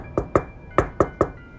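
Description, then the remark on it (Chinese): Urgent knocking on a door: two sharp raps, a short pause, then three more in quick succession, each loud and hollow-sounding, with no voices. “就在这时，敲门声越来越急促，”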